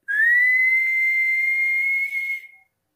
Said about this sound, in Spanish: Entonces voy a hacer la boca una O y chiflo.